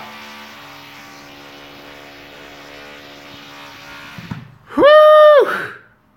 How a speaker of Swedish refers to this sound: De är sjuka alltså. De borrar ihjäl sig. Alltså det är varje dag, du vet. Varje dag.